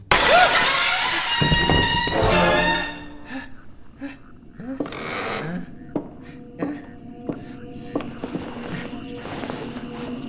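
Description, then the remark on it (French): A stone thrown through a caravan window: a loud crash of glass shattering, with a bright burst of breaking shards for a few seconds, followed by scattered tinkling pieces and small clinks as debris settles. “On n'a pas idée de balancer des pierres dans la fenêtre des caravanes des autres”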